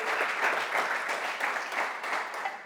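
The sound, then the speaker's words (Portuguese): An audience applauds Jesus together, a dense, steady wash of many hands clapping at once, sustained at an even level for a few seconds with no voices standing out. “Ah, você podia dar um glória e um aplauso a Jesus aí, as misericórdias.”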